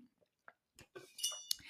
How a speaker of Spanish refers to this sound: Voy a tomar un traguito de agua porque estoy que me hago